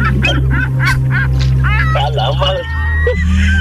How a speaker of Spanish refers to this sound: Mira, mira, eh, mira, eh, Estoy, estoy viendo también una gaviota pasar.